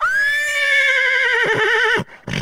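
A single loud horse whinny rings out for about two seconds, a high, quavering neigh that wavers and trembles before breaking off abruptly, with no voices present.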